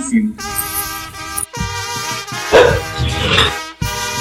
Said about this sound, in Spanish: Ahí están los perros ladrando, ¿no?